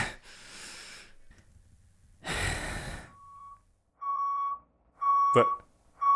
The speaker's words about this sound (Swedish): varför kommer ni här med gaffeltuck? Lastat med TV-spel? Vart skulle vi annars få plats med spelen? Ser du inte hur många det är? Klart vi tog trucken.